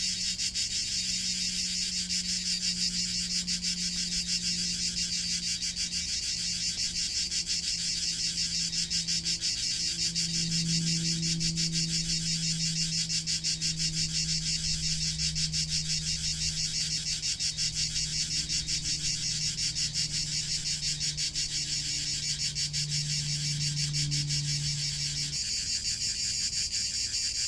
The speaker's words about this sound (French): Expirez, vous êtes calme, bercé par votre souffle bercé par le chant des cigales.